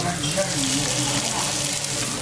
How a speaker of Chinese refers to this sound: 现在差不多在晚上七点多钟，然后我们在一起吃烤肉，应该也能听到那个油滋滋的声音。